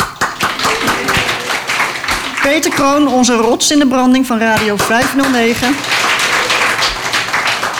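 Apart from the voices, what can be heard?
audience applause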